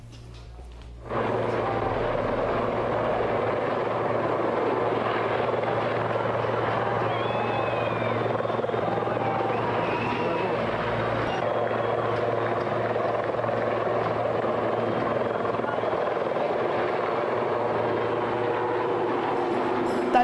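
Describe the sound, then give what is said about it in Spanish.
A helicopter roars steadily overhead, its loud, continuous rotor noise starting abruptly and holding for the whole stretch with a low throbbing drone, with no voices. “¿Está soñando con Alberto yéndose en helicóptero?”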